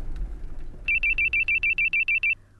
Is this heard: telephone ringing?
yes